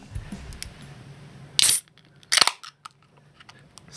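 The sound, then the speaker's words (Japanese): Two drink cans of alcohol or juice cracked open together in unison a moment apart, each a sharp metallic pop with a short fizzing hiss, followed by a few faint clicks and rustles. No one speaks. “じゃあ皆さんもお酒の用意、い、いですかあ未成年の方はなんか違うジュースの缶物で、うん、うん、開ける音だけ、開ける音だけ一緒に合わせていただければと思います”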